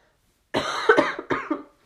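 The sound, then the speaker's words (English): A short burst of harsh coughing: several rapid chesty coughs in a cluster, a brief pause, then one or two more, with no talking. “I'm sorry about my coughing, by the way.”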